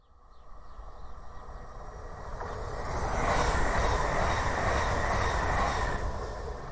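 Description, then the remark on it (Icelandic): A passenger train in Ukraine rolls along the rails with a steady, broad rumble and clatter that grows louder as it approaches and stays heavy, with no voices. “Hann hefur til dæmis aldrei getað farið með lest því sem næst á vývöllin og segir að núna séu lestirnar fullar, hvort sem þeir eru að fara til austurs eða vesturs.”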